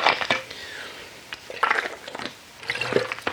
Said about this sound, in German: Ich muss mal einen Schluck trinken hier.